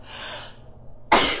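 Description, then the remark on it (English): A single sharp, loud sneeze bursts out after a brief breathy inhale, ending abruptly with a harsh, explosive burst of air. “Bless you.”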